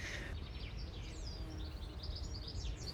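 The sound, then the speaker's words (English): Birds chirp and sing in quick, high twittering bursts throughout, over a steady low rumble of wind outdoors. No one speaks. “Yes, not a whinny, not a neigh, but the wind and bird song, Whatever that is.”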